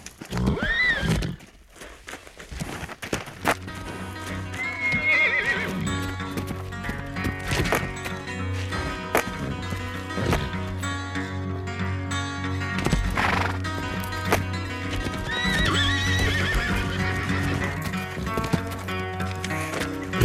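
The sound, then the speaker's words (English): A spooked horse in a meadow, gently pursued by a man, whinnies loudly a few times, its shrill neighs rising and falling, while hooves clip-clop steadily over a constant low droning background. “gently pursues the horse, and they are at opposite ends of the meadow”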